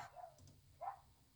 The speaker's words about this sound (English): There's just a dog in the background. Beagles running around. Yes. Sorry, that's my neighbor's dog.